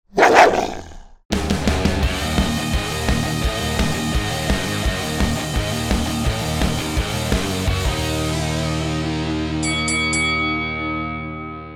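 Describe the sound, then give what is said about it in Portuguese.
A short, rough growl, likely a human voice imitating a dog, lasts about a second, then a rhythmic music track starts and plays steadily to the end. “Rosnei.”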